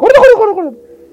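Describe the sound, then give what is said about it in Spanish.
A single human voice mimics a turkey gobble, a loud, warbling burst of rapid pitch wobbles that slides downward and trails off into a quieter, steady hum. “Que se hacen así como los guajolotes.”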